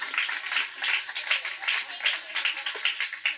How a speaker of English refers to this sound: Well, please give all those back, but give a round of applause to our volunteers.